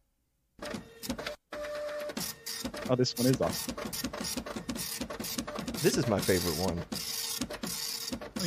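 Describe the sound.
A printer whirs and clatters in steady mechanical bursts while a person talks excitedly over it.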